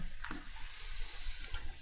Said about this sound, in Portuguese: Opa, tá pingando do gelo ainda aqui.